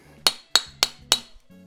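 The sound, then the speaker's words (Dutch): Four crisp, evenly spaced taps on a small glass, each giving a bright, short ringing clink, fairly loud over a faint low background hum. “En dan tik ik tegen het glaasje aan.”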